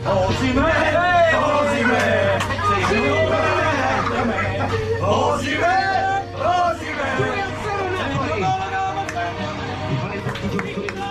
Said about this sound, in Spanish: Incluso los aficionados, como si fuera Superman, al, grito de Superman, le gritaban con ese cántico.